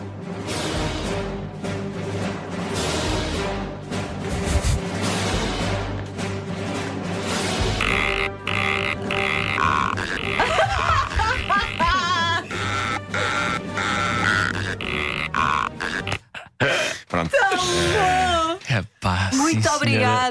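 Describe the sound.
Loud, growling orca-like human roars pitched and stitched together into a few seconds of a marching melody, sustained tones giving way to wavering, sliding cries toward the end, with no talking over it.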